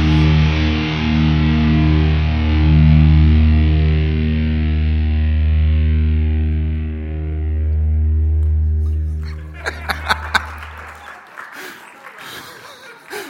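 The closing moments of a heavy metal song: a loud, distorted low chord rings out and slowly fades for about ten seconds, then a crowd breaks into scattered clapping.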